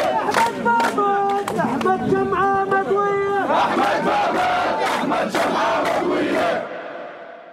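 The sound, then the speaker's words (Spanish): A large crowd at a Muslim burial in the West Bank chants its fury in unison as a martyr is buried and the crowd presses in: loud rhythmic shouted phrases with overlapping voices and bursts of yelling, the roar thinning out near the end. “Y mientras la entierran, vuelven a corear su furia y la multitud se agolpa.”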